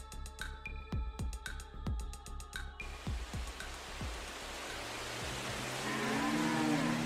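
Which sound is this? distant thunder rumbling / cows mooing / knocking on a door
cows mooing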